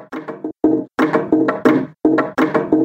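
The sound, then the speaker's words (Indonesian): Wooden pestles (alu) pound a rice mortar (lesung), played by young women in a village, in a steady, interlocking rhythm, each strike a resonant, hollow knock ringing out with brief pauses between phrases and no voices. “Rupanya, Suara tersebut berasal dari para gadis yang memainkan alu dan lesung.”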